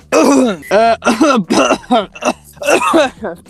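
A fairly loud series of short throaty vocal bursts, like someone straining to clear their throat without quite managing it, coming in quick irregular pulses.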